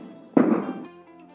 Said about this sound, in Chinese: 哎，刚刚刚刚是外面的那种。鞭炮的声音，因为我在老家，我们这里不会禁止。老家农村嘛，小城市，然后不会禁止放鞭炮，所以非常多的人在放鞭炮，还挺好。